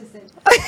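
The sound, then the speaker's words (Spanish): A single sudden sneeze bursts out loud after a moment of quiet background murmur, sharp at onset and then trailing off briefly. “salud.”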